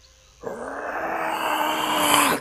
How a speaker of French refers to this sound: Vous entendez un hurlement.